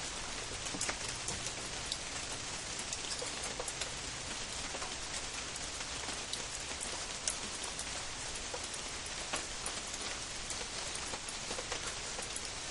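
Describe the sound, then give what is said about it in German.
Steady rain, which began as it got dark, falls in a dense, continuous hiss, with scattered sharper drops pattering on a surface throughout. No voices, just the even wash of rainfall. “Es dunkel geworden, dass es regnen angefangen.”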